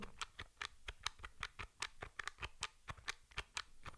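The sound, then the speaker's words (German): Soft, rapid key clicks in an uneven rhythm, around twenty light presses, some several keys at once, on the quiet keyboard of a switched-off braille device held close to the microphone, with no voices. “Ich tippe jetzt hier mal bei ausgeschaltetem Gerät und halte das mal relativ nah ans Mikrofon.”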